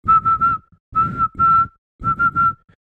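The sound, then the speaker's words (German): A person whistles the Morse code for SMS in three quick groups: three short notes, two long notes, then three short notes again, all on one steady high pitch. “Und genau, darum haben übrigens auch die SMS früher so getönt.”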